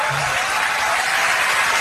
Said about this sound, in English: Oh, so you get a you get a cheer there.